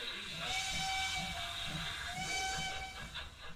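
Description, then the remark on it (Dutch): A model steam locomotive about 20 centimetres long, at the Eindhovense Modelbouwvereniging workspace in Eindhoven, gives two sustained whistle blasts, each held for about a second, over a steady, loud hiss of escaping steam with a faint rhythmic chuffing underneath. “Klinkt als een flinke stoomtrein, niet? Nou, schijnbedriegt. Ik kan hem namelijk niet alleen horen, maar ook zien.”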